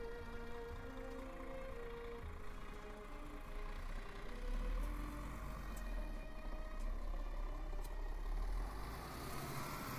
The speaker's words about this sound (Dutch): In de stadsbus rijd ik door de Bannen, een wijk in Amsterdam-Noord.